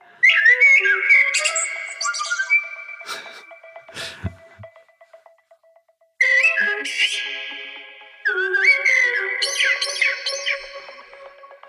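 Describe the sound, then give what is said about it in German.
A Eurasian blackbird sings clear, fluting phrases in three bursts separated by short pauses, the melodic whistles rising and falling with bright trailing notes, fairly loud with no talking. “Weil wir spielen gerade mal die Amsel vor.”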